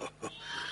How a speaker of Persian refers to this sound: چیزی نیست این موقع سال خوک رو میکشن این کار خوکچران های دیرم در این خونریزی چیزی نیست که مورد توجه شما قرار بگیرم